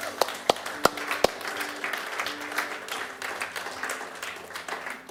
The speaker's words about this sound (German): Lasst uns mal einen riesen Applaus geben für die Locations.